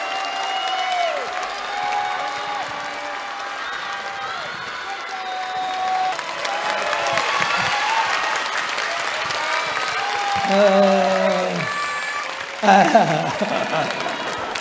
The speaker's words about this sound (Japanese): お待たせいたしましたここからは斎藤ひとりさんのお話です皆様大きな拍手をお願いいたします